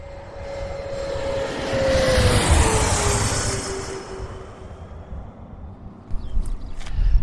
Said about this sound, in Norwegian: Ja, nå står vi midt ute på ja, en taxibane ved på Oslo lufthavn. Og vi hører fuglekvitter og ikke så mye flytrafikk foreløpig.